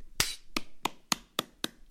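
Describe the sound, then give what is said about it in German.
A short run of six sharp hand claps at a steady, fairly quick rhythm, crisp, with nothing else in the background. “Ja, aber einmal reicht. Ein Klatsch Bei reicht.”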